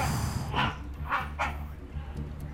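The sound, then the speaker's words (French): A rhinoceros gives three short, squealing calls in quick succession over a steady low rumble, moderately loud. “Ça, c'est le cri d'un rhinocéros qu'on entend, ça On dirait un pan.”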